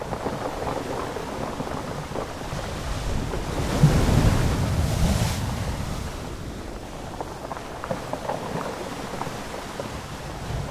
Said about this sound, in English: yeah, it's just such a fabulous sound. Big wave hits, jostles these thousands of bowling balls around. It's like this wave rock monster that's kind of talking with the ocean, and it, oh, it was so beautiful.